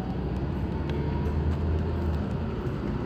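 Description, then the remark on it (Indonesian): Steady low engine drone and road rumble from inside a moving conventional city bus, continuous and fairly loud throughout, with faint rattles and clicks scattered over it and no one talking. “tapi kok ini penumpang kayaknya ya lebih senang naik bus konvensional seperti ini”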